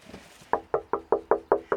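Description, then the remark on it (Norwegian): Seven quick, evenly spaced, crisp raps on a window pane, following a brief moment of quiet background noise. No one speaks. “Så banker vi på ruten her.”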